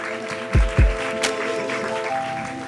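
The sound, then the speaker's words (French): An audience claps in a steady, dense wash of applause welcoming a host's entrance at a live evening event, with a sustained musical hum underneath and two low thumps early on. “Merci pour cette entrée, euh, c'était formidable, c'est très appréciable de se faire euh, applaudir comme ça.”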